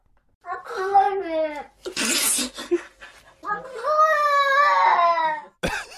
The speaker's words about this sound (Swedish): Den här katten sitter utanför en dörr och vill komma in. Ja. Så här låter det.